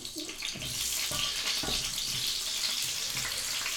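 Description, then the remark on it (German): A small piece of celery, then eggplant, sizzles steadily in hot fat in a frying pan, a continuous crackling hiss with a few faint clicks and clatters underneath and no talking. “So, jetzt brutzelt das kleine Stück Sellerie, was ich da reingegeben habe. Und jetzt kommen die Auberginen dazu.”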